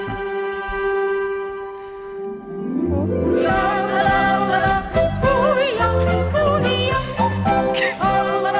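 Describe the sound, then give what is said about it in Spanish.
A long, sustained alphorn (Alpine horn) note rings out alone for a few seconds as a Tyrolean-style song intro, then a full band with a singing voice swells in and carries the tune loudly. “Este es el corno de los Alpes.”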